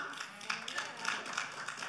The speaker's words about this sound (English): God's word also says in Psalm 117, verses 1 and 2, it says, Praise God, everybody. Hallelujah. Applaud God, all you people. What does it mean to applaud? Come on.